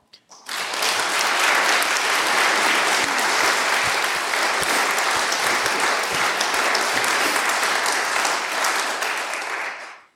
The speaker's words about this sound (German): Ich glaube, das ist ein rechter Applaus wert.